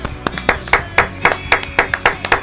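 Hands clapping in a steady, fairly quick rhythm, a short burst of sharp claps from what sounds like a small group, moderately loud with no talking.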